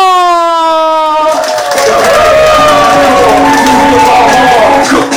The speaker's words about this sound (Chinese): 好，接下来让我们掌声有请